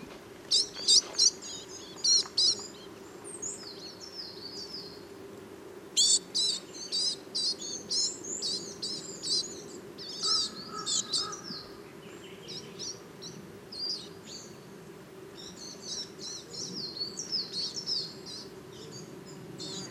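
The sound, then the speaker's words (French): High, thin chirping calls from young coal tits come in quick bursts, some clear, with a steady low outdoor hum underneath and no talking. “des jeunes mésanges noirs.”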